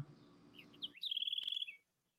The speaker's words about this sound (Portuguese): Vai ter até um passarinho aí, igual você.